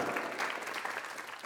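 Steady applause from a crowd as the bride and groom are announced, everyone clapping at once in a dense, continuous wash of sound that holds at an even level throughout, with no voices standing out.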